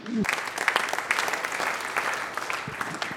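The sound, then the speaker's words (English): An audience claps steadily for a few seconds to thank a woman again, a dense wash of hand claps with sharper individual claps popping out, beginning just after a brief voice. “Okay, let's thank her again.”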